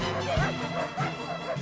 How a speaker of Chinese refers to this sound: 公园步道、马路横道、小区楼道，狗吠相闻，狗屎遍地，狗冲纸状。